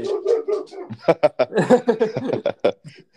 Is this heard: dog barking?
yes